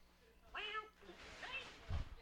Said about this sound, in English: I know, right? I mean, a cat. That's just not. That's just not right. What's that? Just kick it over the damn back fence if you're tired of it being in your yard.